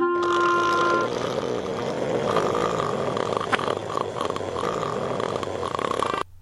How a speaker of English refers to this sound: That is the longest fucking snore ever. I didn't like realize that even like having just like cut the sound, it's just so It's long. like two minutes long.